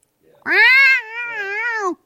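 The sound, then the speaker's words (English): A person imitates a long, wavering cat yowl, loud, a drawn-out nasal wail of about two seconds that starts strong and wobbles in pitch before cutting off. “I, it wasn't yelled. It didn't howl. It yowled.”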